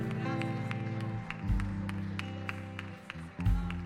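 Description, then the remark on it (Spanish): An audience claps for the Lord one afternoon, in a steady, regular rhythm over sustained keyboard chords, the sharp claps landing at even intervals above the music, with a couple of low thumps partway through. “¿Cuántos pueden darle un fuerte aplauso al Señor en esta tarde?”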